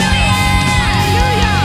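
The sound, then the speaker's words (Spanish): An audience at a worship service applauds and cheers for Jesus, a dense, loud, steady wash of sound with scattered whoops and yells rising above it throughout. “Vamos a darle a Jesús el aplauso más grande que podamos.”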